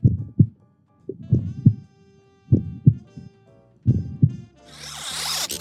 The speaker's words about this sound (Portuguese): Na verdade, não sei, tava bem fácil da semana passada também, que era é a batida do coração, um elemento aí de Renfield, o nosso filme da semana passada.